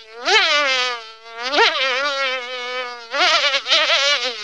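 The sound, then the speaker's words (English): A large fly, about the size of a ping pong ball, buzzes loudly at Motel Ferguson, its droning whine wavering in pitch across three sustained bursts with brief dips in between, and no voices. “you were a pretty big fly to begin with”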